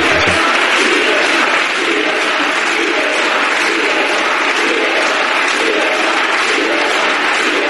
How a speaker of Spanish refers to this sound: dando golpes y manotazos encima de del mobiliario del, del, Congreso